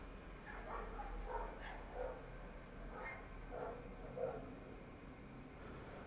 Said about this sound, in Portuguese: Bom, tem uma cachorrada latindo lá fora.